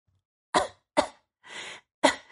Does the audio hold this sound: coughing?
yes